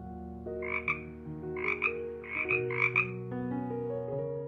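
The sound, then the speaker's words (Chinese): A voice imitates a frog's croaking with four quick, raspy "ribbit"-like bursts in a loose rhythm, set over a steady background of sustained musical tones. ““我学会青蛙呱呱叫。”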